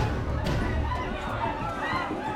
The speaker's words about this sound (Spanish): Dos bandos de criminales se baten a balazos. La gente grita y corre despavorida.